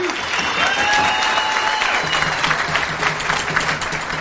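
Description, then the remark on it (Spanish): Loud, steady audience applause fills the whole clip as audience members applaud themselves for being there, a dense wash of many hands clapping with no pauses, plus a few faint whistles or tonal sounds riding on top. “Date un aplauso, pero fuerte que se escuche.”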